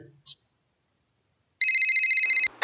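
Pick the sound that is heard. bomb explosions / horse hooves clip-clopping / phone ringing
phone ringing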